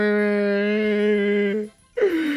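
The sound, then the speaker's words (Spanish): A man wails while crying, holding one long, steady moaning sob before a brief catch of breath, then letting out another falling cry. The sound is loud. “¿Por qué sigue llorando?”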